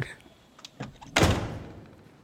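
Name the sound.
door closing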